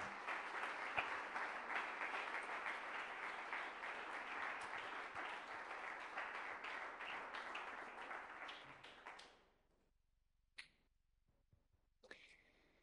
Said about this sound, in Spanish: Vamos a darle un aplauso al Señor por eso, por favor.